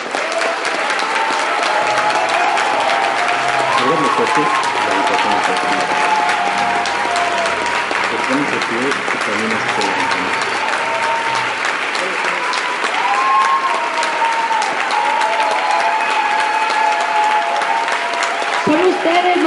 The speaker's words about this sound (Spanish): Ahora todos dense un aplauso muy fuerte con los ojos cerrados, con los ojos cerrados.